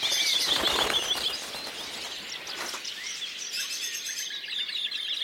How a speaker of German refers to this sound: In einem der Gehege des Zoologischen Gartens waren Tiere vergessen worden. Die Vögel schrien entsetzlich.